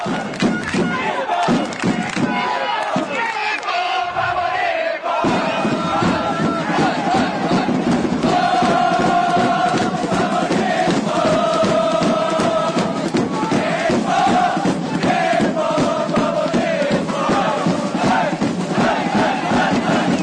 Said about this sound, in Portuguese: que o japonês vai em massa e fica gritando lá, Nippon, Nippon, Nippon. Vamos, enfim, dar voz ao torcedor japonês.